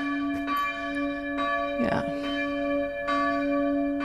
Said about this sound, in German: Danke an die Glocke.